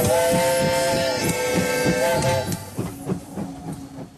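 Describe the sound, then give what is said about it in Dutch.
The Trans-Siberian train departs from the station in Moscow at 9:20 in the evening: a long, loud horn blast sounds over a steady rhythmic chugging, then the horn stops and the chugging continues more faintly as it pulls away. No voices. “Om de twee dagen vertrekt van hieruit de Trans-Siberische trein om 20 over 9 s'avonds.”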